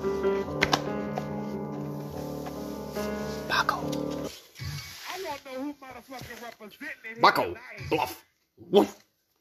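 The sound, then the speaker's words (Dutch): A dog lets out long, high-pitched whining cries, then shorter broken whimpers and yelps, with people talking around it. “er zit een hond tussen mij”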